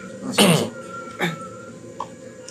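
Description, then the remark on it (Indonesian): A neighbour's child's voice rings out briefly in the background: one short, high-pitched yelp, then a fainter second cry a moment later, with no talking over it. “Tuh, pas kita mau mulai ada suara bocah kenapa ya?”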